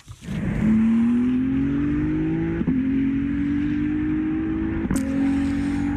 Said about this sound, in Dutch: Ja, dat is de GT3-variant van de 296 GTB. Dat is een auto die in de 24-uur races eh, rijdt. Helaas, einde van het tijdperk. Geen V8-motor meer, maar wel een lekkere, dikke 3-liter V6. Luister maar.